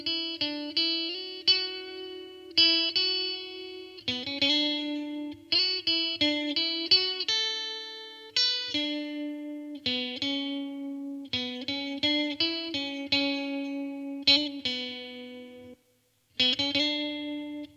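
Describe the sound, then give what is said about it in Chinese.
An electric guitar with a chorus effect plays a steady, rhythmic run of picked notes and chords, the tone shimmering and slightly doubled, with a brief pause near the end and no talking. “那我们来听一下，当我加上了合唱效果。这个声音会变成什么样子？”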